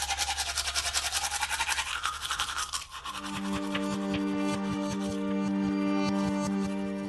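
Teeth brushing: quick, rhythmic scrubbing strokes for a few seconds, then a loud, steady electric toothbrush buzz with a fast pulsing rhythm. No voices.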